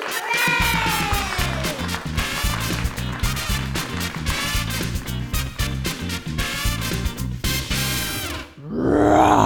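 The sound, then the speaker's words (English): A loud, rough lion roar rumbles and snarls continuously for about eight seconds with a throbbing, pulsing texture, then cuts off abruptly, followed by a brief different sound. “Well, that was a scary roar.”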